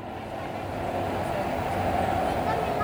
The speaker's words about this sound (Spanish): ahora tenemos otro ruido diferente. Ahora tenemos un club de motora.